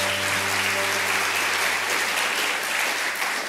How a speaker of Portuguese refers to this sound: Você pode dar uma salva de palmas ao Senhor? Glória a Deus.